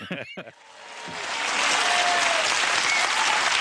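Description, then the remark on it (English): A brief bit of speech gives way to a spontaneous round of applause for Margaret Thatcher, called one of Britain's most popular leaders, swelling within a second into steady, dense clapping from many hands, holding loud to the end. “A spontaneous round of applause for one of the most popular leaders this country's ever had.”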